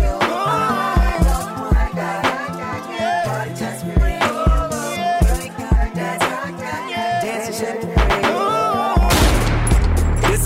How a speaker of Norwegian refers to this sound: Vi skal høre et eh, klipp fra låta.